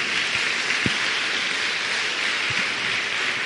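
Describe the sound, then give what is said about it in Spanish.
An audience claps steadily in applause for a mother, a dense wash of applause that holds at an even level for the whole stretch, with a couple of soft low thumps underneath and no voices. “Entonces, ¿se merece o no se merece un aplauso a esta señora?”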